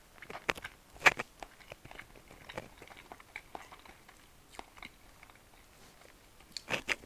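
Someone chews food while eating lunch, with soft, irregular crunching and biting sounds, a few sharper bites standing out, and no one talking.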